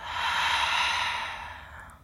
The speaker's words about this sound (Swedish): Tar ett djupt andetag in. Andas ut, pustar ut.